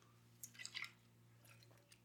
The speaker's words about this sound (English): Sip of the Joe there.